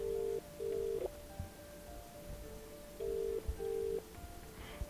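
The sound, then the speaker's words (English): A returned phone call rings on the other end with a double-burst ringback tone, two short paired beeps repeating after a pause, heard twice over a quiet, faintly noisy background. “Bouncing with excitement, I called him back.”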